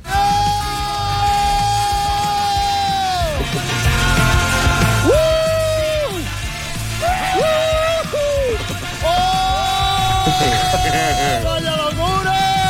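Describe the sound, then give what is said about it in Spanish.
Several people scream and yell loudly and continuously during a skydiving jump, long strained cries that rise and break off, over a constant roar of rushing wind as they free-fall through the air. “El primer grito suena como más eh, apretado.”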